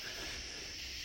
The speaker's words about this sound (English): Crickets are just blasting away.